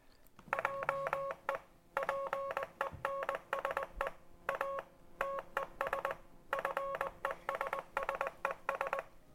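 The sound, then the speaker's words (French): A Morse code message encoding the French phrase "je pense à tes fesses", tapped out as loud electronic beeps, short tones bunched into rapid groups separated by brief pauses, continuing steadily with no voices. “on peut essayer quand même d'interpréter son message si on va sur un site de traduction de, Morse”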